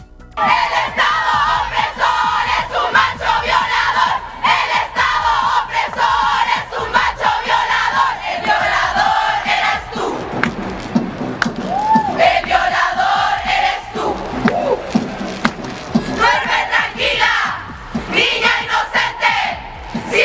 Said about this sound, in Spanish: Después, las mujeres siguieron buscando la manera de manifestarse de manera pacífica con la idea de que su voz fuera escuchada, y fue así como nació la canción Un violador en tu camino, y una vez más fueron objeto de burlas.